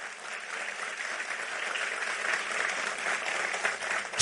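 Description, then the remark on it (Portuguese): An audience at a church sermon applauds the Lord steadily, a dense wash of many hands clapping at an even level throughout, swelling slightly toward the end. “Pode aplaudir o Senhor.”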